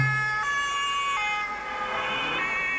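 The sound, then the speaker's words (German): A loud two-tone emergency vehicle siren alternates between high and low pitches in a steady hi-lo pattern, with faint road noise underneath and no voices. “Tatütata, tatütata.”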